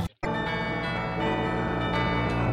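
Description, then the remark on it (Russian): Bells ring together in a dense, sustained wash of overlapping tones, fresh strikes arriving every second or so over a lingering resonant hum. Loud and full, with no voices. “Почему вы навязываете звон колоколов?”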